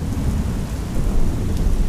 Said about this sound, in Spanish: Por último, la lluvia escuchó con claridad el canto del sapo bocón en el cerro en donde estaba el maizal. Y allí fue la lluvia.